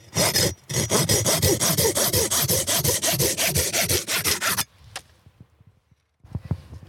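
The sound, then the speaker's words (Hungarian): The small folding saw of a Victorinox pocketknife cuts through wood in fast, regular back-and-forth strokes for several seconds, rasping. It stops abruptly, leaving a few faint clicks and handling sounds. “Én már a Victorinox bicskákon a, a fűrészt is szeretem, az egyik leggyakrabban használt eszközöm egyébként a fűrész, mert, mert marha jó.”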